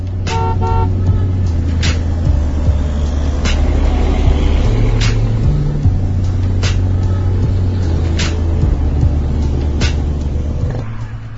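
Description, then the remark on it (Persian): Dense city traffic jam in Karaj, with cars standing still and pedestrians passing in smoggy air: engines idle and rumble steadily while car horns honk repeatedly in short bursts, a faint voice now and then in the background. “هوا همونی بود که بود توی ترافیک راننده ها توی ماشین های بی حرکتشون به همدیگه ظلم می زدن و پیاده ها به دنبال جیره هوا از کنارشون رد می شدن.”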